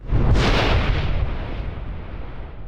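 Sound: thunder sound effect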